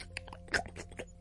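A dog chewing and chomping on a small bone, a quick run of wet, crunchy bites with one louder snap in the middle, fairly quiet over a low steady hum.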